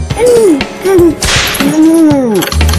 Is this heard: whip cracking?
yes